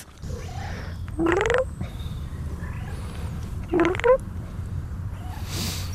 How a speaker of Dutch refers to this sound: Mm dat is grappig, dat is echt precies mijn kat. Oui. is juist hetzelfde.